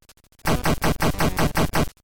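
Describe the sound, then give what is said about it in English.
Video game machine gun fire, fired automatically by holding down the A button: a burst of about six harsh, noisy shots in a steady rapid rhythm, loud and gritty, with no talking. “Holding the A button down, we unleash the automatic fury of our machine gun.”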